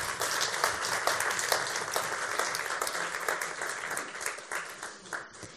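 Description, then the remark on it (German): An audience applauds steadily, many hands clapping in a dense, continuous wash that holds at a fairly even loudness for several seconds before easing slightly at the end. “Ja, gib ihm Applaus.”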